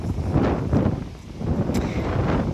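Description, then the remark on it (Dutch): Strong wind on a very windy day buffets the microphone in heavy, low rumbling gusts that surge and ease over a couple of seconds, loud, with no one speaking. “Het waait heel erg hard, dus ik hoop dat je me hoort.”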